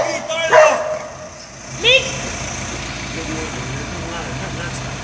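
A dog barks twice, two short sharp yelps about a second apart, over a steady low rumble like an engine or traffic.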